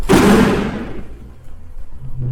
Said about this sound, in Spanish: La eh. puerta se cayó detrás de mí